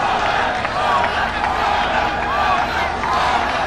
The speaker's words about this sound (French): Oui, c'est François Hollande que ces maliens acclament. Et le voilà, je le vois là, il salue la foule, il serre des mains.